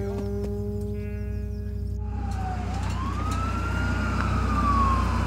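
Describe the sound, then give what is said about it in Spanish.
An ambulance siren wails up and then slowly down over a steady low engine rumble, fairly loud, with no one speaking; the ambulance is from Fregenal, heading to the hospital. “Médico de puerta, mira, mm, ambulancia de aquí desde Fregenal, vamos para allá, para el hospital.”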